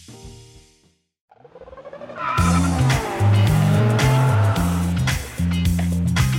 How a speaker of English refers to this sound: Okay, let's get to the brum brums, the motorsport,